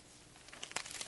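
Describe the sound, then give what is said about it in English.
Soft papery rustling of Bible pages being turned to 1 Samuel chapter 1, a quick run of crinkly swishes building over about half a second, fairly quiet, with no voices. “I hear the pages turning.”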